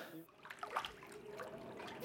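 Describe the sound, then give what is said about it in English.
Water trickles steadily in an echoing space beneath the hippodrome, with a few brighter drips and splashes standing out early on; the sound stays fairly quiet and continuous throughout. “The question is how deep is that water? It's maybe knee deep.”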